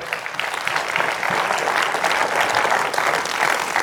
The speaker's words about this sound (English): Come on, clap your hands to the Lord today.